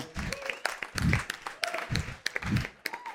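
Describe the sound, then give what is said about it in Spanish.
An audience breaks into steady applause for a woman on an investigation team, a dense crackle of many hands clapping at once, with some voices and cheers rising and falling underneath throughout. “Dentro de ese equipo está una mujer que yo valoro muchísimo por su inteligencia y su valentía y pido un aplauso para”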